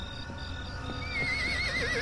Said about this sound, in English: motions to the horse, pedaling its feet, clearly looking like it's about to bolt.